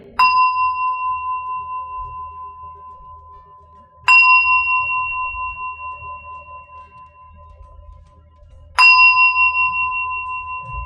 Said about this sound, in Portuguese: Você pode usar algum aplicativo de sino e deixar, você, ah, você regula que o sino toque de um em um minuto, de dois em dois minutos, para que ele, aqui tem um sinozinho, para que ele